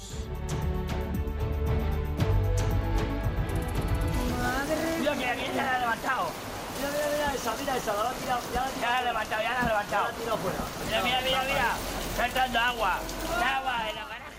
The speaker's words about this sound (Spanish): Una tromba de agua cayendo sobre Bermeo en otra tarde de tormentas